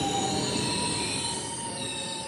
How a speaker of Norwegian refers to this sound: Det er ingen selvfølge at dette toget kommer til stasjonen i tide. På gamle norske jernbaneanlegg er det stadig feil som kan føre til forsinkelser.